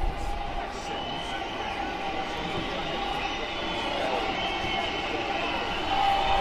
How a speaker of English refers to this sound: Wow, the crowd sounds really creep up on you unawares.